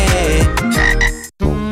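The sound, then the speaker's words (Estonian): A frog croaks loudly in a rough, buzzing drawn-out call, breaks off for a brief silence, then croaks once more, as part of a radio advertisement for the online shop frog.ee. No one speaks. “sa ava kodulehelt frog.ee ja telli koju kõike, mida ikka veel. Froge, Froge.”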